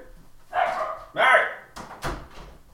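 A dog barks twice, two loud, drawn-out barks about half a second apart, followed by a couple of short muffled knocks.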